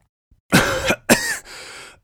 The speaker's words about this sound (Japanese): 皆と同じく缶コーヒーに口をつけた高山は咳き込んだ。